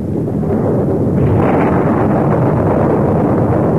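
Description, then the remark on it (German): A long, deep rumble of thunder rolls on without a break, loud and broad, swelling after the first second and holding its heavy low roar to the end. “So, das ist jetzt ein lang anhaltender Donner.”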